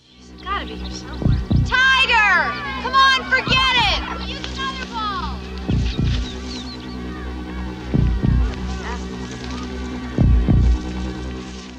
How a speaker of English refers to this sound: The other thing that also happens anytime that Cropsy's happening is this weird, like, audio uh, reverb tone, and it, the camera's moving super, super slow.